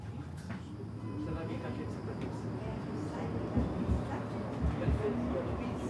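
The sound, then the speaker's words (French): A number 92 tram rumbles steadily along its rails in Uccle, between Vanderkindere and Churchill, a low continuous drone with a few heavier clunks near the end, with faint indistinct voices underneath. “J'ai pris le tram 92 et quelque part à Uccle, entre Vanderkindere et Churchill, j'ai rencontré l'arrière-petite-fille d'Auguste Ley.”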